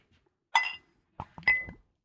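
Glass clinks as a drink is poured into a glass: one bright, ringing clink, a short pause, then a quick cluster of knocks and a second ringing chime that fades.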